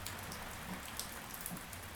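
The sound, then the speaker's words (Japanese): Steady heavy rain pours down with a dense, constant hiss, with rainwater that has exceeded the drainage capacity spilling and splattering from overflowing gutters. No voices, just an even, unbroken downpour at moderate level. “雨が止む気配はない排水能力を超えてしまった雨水が雨どいから溢れ出ている”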